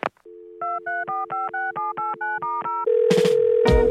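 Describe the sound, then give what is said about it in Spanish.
A telephone line: a steady dial tone, then about nine quick, evenly spaced keypad beeps, followed by a louder continuous tone with bursts of noise. Clear, with no one talking. “Suena el teléfono.”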